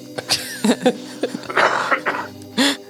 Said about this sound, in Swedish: Fejdar ut med hostet där.